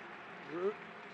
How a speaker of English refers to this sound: He's now being helped up. Crowd cheers.